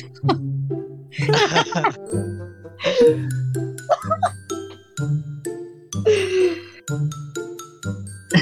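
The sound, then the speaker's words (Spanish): An alarm rings with a bright, chiming melody that repeats about once per second, loud, while voices and other bursts of sound break in between the tones. “No, no, es que sonó la alarma, no sé si la escucharon, pero lo puedo hacer después.”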